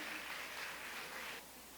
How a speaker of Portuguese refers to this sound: que você pudesse dar um aplauso para ela, para ele, Amém?